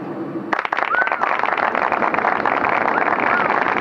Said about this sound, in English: what are they clapping for? What the fuck?